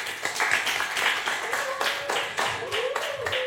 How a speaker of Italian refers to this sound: Facciamoci un applauso.